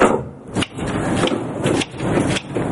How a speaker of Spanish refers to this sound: Susana pasa y Nicolás cierra la puerta.